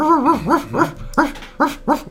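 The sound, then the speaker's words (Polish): A person imitates a dog with a quick series of about six short, yelping barks, fairly loud, with brief gaps between them and no other talking. “Zaczynam szczekać.”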